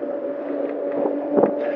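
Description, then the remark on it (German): A steady rush of moving air, a draft blowing through a mine tunnel, with a low droning hum underneath and a slight swell near the end; no voices. “Aber es ist irgendwie, man hat die ganze Zeit so den Wind im Nacken, was jetzt im Moment ganz vorteilhaft ist, weil das Aufnahmegerät im Moment vor meinem Körper ist, sodass ich hoffe, dass ich den Luftzug so ein bisschen mit meinem breiten Kreuz”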